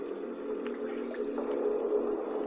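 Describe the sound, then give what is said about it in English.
Water moves and swirls steadily at a low level, blended with a constant mechanical hum of a motor run to keep the water clear; no voices, just a continuous, even wash of sound. “I can hear the water tread every now and again”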